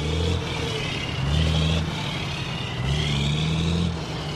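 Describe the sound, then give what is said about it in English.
Heavy diesel trucks rumble past continuously in and around the port of Los Angeles, picking up, dropping off and idling, their deep engine drones rising and falling as they pass, layered over a steady wash of traffic noise with no one speaking. “40,000 times a day, heavy diesel rigs scurry in, out, and around the port of Los Angeles, picking up, dropping off, and just waiting around, idling.”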